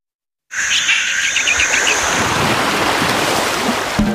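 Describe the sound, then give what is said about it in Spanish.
Steady wash of ocean surf rolling onto a Caribbean beach, with a flurry of quick bird chirps and a high tonal call riding over the waves early on; no voices. “Si lo que necesitas es oír esto, necesitas la Semana del Caribe de Viajes El Corte Inglés con New Blue.”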